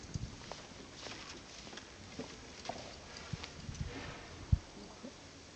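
Many rubber-soled sneakers of the costaleros (bearers) of the Santísimo Cristo de la Humildad shuffle and scuff across the tiled floor of the church of Cristo Rey with faint squeaks, an irregular patter of steps with one sharper knock near the end, heard without any talking.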